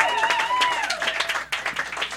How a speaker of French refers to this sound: Alors, une bonne main d'applaudissements